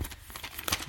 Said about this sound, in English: this as I turn the pages back.